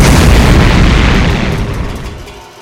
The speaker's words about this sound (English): With a massive explosion, Mecha Captain Marvelous falls to pieces!